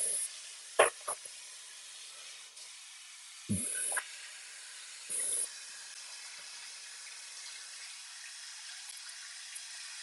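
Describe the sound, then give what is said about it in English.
Water runs steadily from a kitchen tap into the sink while a measuring spoon is washed up, a continuous hiss lasting throughout, broken early by a couple of sharp clinks and two short, heavier gushing bursts. No one speaks. “So I'm going to put a measuring spoon in the sink. I'm going to wash up on the tank.”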